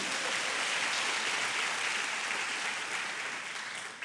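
An audience at a Christian worship service claps loudly and steadily for the name of Jesus, a dense, continuous wash of many hands that holds for several seconds before easing slightly at the end. No one speaks over it.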